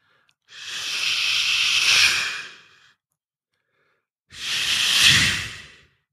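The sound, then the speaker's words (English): Two cars pass on a wet freeway overpass by a hotel window, each a broad hissing swish of tires on wet asphalt that swells and fades away, with a brief quiet gap between them. “I wish that it was your gentle breath here next to me, not the sound of tires on wet asphalt.”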